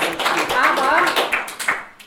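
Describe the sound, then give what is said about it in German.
A burst of applause, dense and fairly loud clapping for about two seconds that thins out toward the end, with some voices mixed into the crowd noise. “Ja, ich finde, ja, auf jeden Fall Applaus.”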